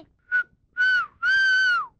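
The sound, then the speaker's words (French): A person whistles three shrill notes imitating a marmot's alarm call warning of an eagle above: a short chirp, then two longer piercing whistles that dip at the end. The sound is loud and alone. “Oh, je t'ai très bien sifflé”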